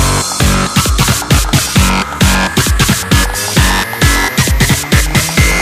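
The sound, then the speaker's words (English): Loud, heavily distorted electronic music with a gritty, saturated wall of sound over a steady pounding kick beat, played continuously with no voices. “More distortion.”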